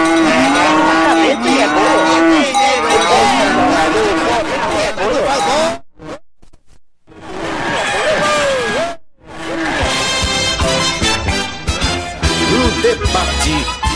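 Many cattle moo loudly, their long bellowing calls overlapping in a dense chorus, broken by two brief silent gaps before the herd starts up again.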